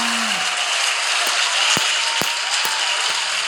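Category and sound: crowd, audience applause and cheering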